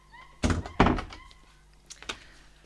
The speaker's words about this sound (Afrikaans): Die ape kies vinnig die hasepad en Mim maak die kombuisdeur toe.